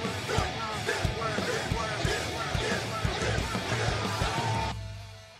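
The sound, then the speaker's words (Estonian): A short, loud intro jingle of dense music driven by punchy, regular thumping beats, which cuts out near the end and leaves a low tone fading away. “kas te kuulsite seda ilusat introt, mis meil nüüd on?”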